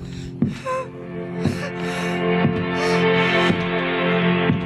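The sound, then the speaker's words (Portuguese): Heavy, labored breathing of the badly bruised Beatrix Kiddo in Tarantino's fourth film comes in short, strained gasps roughly once a second, steady, over a low sustained droning tone with no talking. “Sua respiração é angustiante.”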